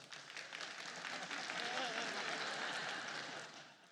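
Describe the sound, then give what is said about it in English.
An audience applauds a speaker's mention of 38 years of marriage, with dense, steady clapping that swells and holds for a few seconds before easing slightly, a bright wash of many hands together. “And I've never, I'm always amazed at how people clap at that.”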